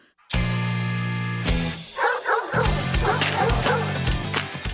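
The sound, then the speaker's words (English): A dog barks and yips loudly, starting with one long drawn-out bark, then a rapid string of shorter, excited yips that keeps going without pause. “He brought this dog home, and he said, Well, I'm going to train this dog to, to snatch purses.”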